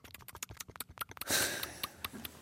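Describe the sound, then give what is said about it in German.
A person imitates a hedgehog with quick, rhythmic sniffs and snuffles, then a louder, breathy rush of crunching and slurping noises like an animal gobbling an earthworm, followed by a few more sniffs. “Wenn er so schnüffelt und dann einen Regenwurm auffrisst.”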